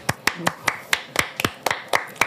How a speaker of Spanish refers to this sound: Le pedimos un aplauso y una ola.